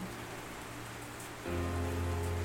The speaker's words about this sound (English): we might just leave you all to listen to the rain.